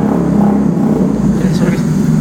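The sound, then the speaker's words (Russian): A Jaguar's engine roars steadily and loudly throughout, a deep, continuous rumble as the ordinary civilian road car, not adapted for racing, drives on a track, with no pauses. “это Ягуар как раз. Это как раз хороший да, фон.”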